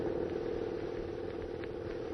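A car engine purrs steadily as the vehicle drives along a silent street past dimly lit store windows full of curios, a smooth, continuous low drone at an even volume with no voices or other sounds.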